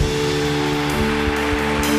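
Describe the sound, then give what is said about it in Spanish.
A crowd applauds to welcome first-time newcomers, a dense, continuous wash of clapping that holds at an even, fairly loud level throughout, with a few dull low thumps underneath and no voices. “Son ¿Por qué no les dan un fuerte aplauso?”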